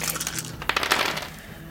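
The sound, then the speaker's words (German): A handful of RPG dice clatter and tumble across a hard surface, a quick burst of bright rattling clicks that settles after about a second, with no voices. “Swiss RPG-Würfel”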